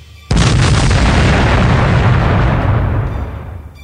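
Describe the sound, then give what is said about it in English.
A sudden, loud explosion bursts in and rolls straight into a continuous roaring barrage of blasts, sustained, slowly easing off toward the end with no voices: a series of chain reaction explosions as an aircraft plows into a laser gun emplacement. “then drops away sharply, plowing into a laser gun emplacement causing a hideous series of chain reaction explosions.”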